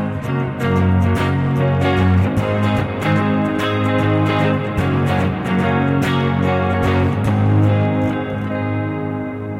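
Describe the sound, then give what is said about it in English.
An electric guitar played through a pedalboard with a chorus pedal and a stereo reverb pedal plays a steady run of chords drenched in shimmering chorus and wide, washy reverb, notes ringing into each other with a lush, spacious tail, no voices. “Now he just put in the stereo reverb with it.”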